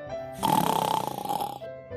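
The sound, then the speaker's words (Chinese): A single drawn-out snore, rough and rattling with a steady buzzing tone, lasting about a second over a faint low hum, then fading back to quiet, from a creature in a children's story sleeping in its hole after swallowing eggs. “他就嗷，一口把蛋吞下肚，连壳也不吐，然后回到洞里继续睡大觉。”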